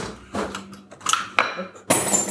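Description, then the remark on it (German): Light metallic clinks and pings as spent brass casings drop and rattle into a catcher, several bright, ringing impacts in quick succession with no talking. “direkt ein Sammelbecken für die leeren Hülsen. Springt direkt rein, super.”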